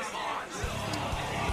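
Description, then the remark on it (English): People mingle and get drinks at a club bar in an indistinct murmur, with muffled dance music thumping low underneath, coming through from the dance floor upstairs. “You can hear people mingling, getting some drinks.”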